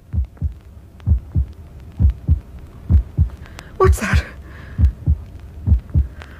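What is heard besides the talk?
heartbeat thumping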